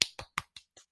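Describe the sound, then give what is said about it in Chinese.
A short run of hand claps, about six sharp, crisp smacks at a quick even pace, the first loudest and the rest gradually softer, with no talking. “那一样也恭喜今年是 … 出道第十年，拍手。”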